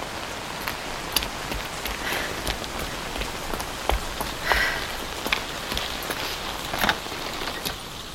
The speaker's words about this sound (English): I would even consider holidaying here, but not for this weather. I should go inside. The rain's getting stronger.